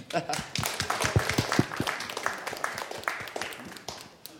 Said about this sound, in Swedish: Applåd på det.